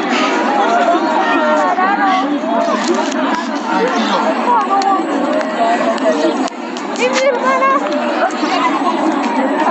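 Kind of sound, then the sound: crowd, children crying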